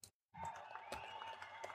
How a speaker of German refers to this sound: Vielen Dank für diesen warmen Applaus.